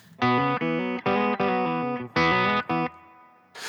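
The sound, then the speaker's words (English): An electric guitar run through an effects unit, using one of seven player-made presets on its Mark II page, plays a short series of loud, sustained, distorted chords in uneven bursts, ending with a fading ring and a brief noise at the end. “But now I have seven uh, presets I made. So uh, I'll, I'll show you them.”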